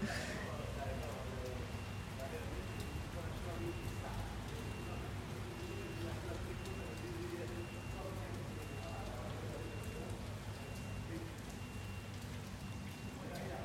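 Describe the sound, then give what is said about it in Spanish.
Steady rain patters and hisses continuously, with a low hum of street noise underneath and faint, indistinct sounds in the background, holding an even level throughout. “Eh, estoy dejando espacios para que se escuchen los ruidos de la calle porque me parecen muy bonitos y los ruidos de la lluvia porque son encantadores.”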